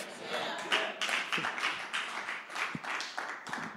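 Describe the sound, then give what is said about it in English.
A few people clap unevenly for a few seconds during a sermon, the sharp hand claps scattered and irregular rather than in rhythm, with indistinct voices murmuring underneath. “For the five claps I got, stay on the rock.”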